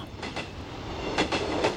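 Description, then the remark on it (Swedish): A train to Stockholm rumbles steadily along the rails, its wheels knocking out paired clickety-clack beats over a constant low roar, with no voices. “Och sen tar jag mig till Stockholm med tåget”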